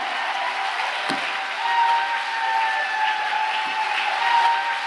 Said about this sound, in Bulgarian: О, камон, ако ръкопляскаш, ръкопляскай като че си в църква пробуждане и като че ръкопляскаш на Исус и като че проповядва твоя пастир. Камон!